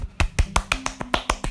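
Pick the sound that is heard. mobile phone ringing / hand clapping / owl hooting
hand clapping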